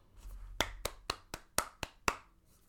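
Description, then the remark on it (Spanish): Seven sharp hand claps in a steady, even rhythm, each a crisp smack standing alone with no talking, followed by a faint trailing clap at the end. “aplausos. Apláudete, dítelo aunque tú no tengas fuerza.”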